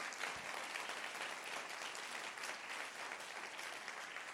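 An audience claps for the Lord Jesus, steadily throughout, a dense, even wash of many hands with no clear individual beats, holding at a constant moderate level with no speech over it.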